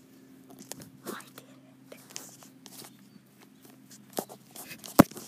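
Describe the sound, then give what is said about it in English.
Lego bricks clatter softly in scattered, irregular clicks and light rattles, faint, with a sharper louder clack near the end over a low steady hum. “I was able to successfully get the two things, and you heard it a tiny little glitter clatter of Lego bricks.”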